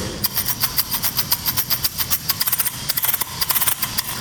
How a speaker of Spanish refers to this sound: Es que imagínense un frasco de esos de mermelada bonitos, cuando uno lo lava y le queda la tapa de metal, el frasco, ahora lo lleno hasta la mitad de maíz y miren el sonido que produce cuando lo muevo solamente en una dirección. Escuchemos.